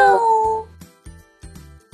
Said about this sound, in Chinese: 现在，它又变回了可爱的猫咪。两只小猫咪开心的互相蹭蹭。喵！